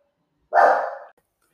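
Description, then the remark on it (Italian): A single loud, drawn-out dog bark, lasting about half a second and standing alone with no talking around it. “scusatemi ma ho il cane che in questo momento ha deciso di abbaiare a tutto volume e non riesco a registrare”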